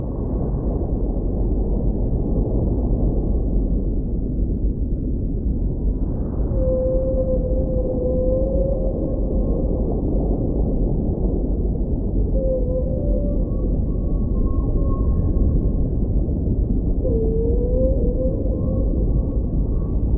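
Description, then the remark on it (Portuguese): Whale song underwater from a pair of whales, the male singing an elaborate melody and the female answering with lower, shorter sounds: a few long, wavering tonal moans rise faintly above a dense, steady rumble of ocean noise, spaced several seconds apart with no voices. “O macho canta uma elaborada melodia, tentando impressionar a fêmea, que responde a ele emitindo sons mais graves e curtos.”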